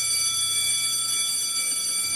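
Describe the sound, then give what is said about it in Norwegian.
A school bell rings continuously to call pupils back in to class, a loud, steady, shrill metallic clang that holds without a break for the whole couple of seconds. “Og der ringte det inn igjen. Vi må inn til time.”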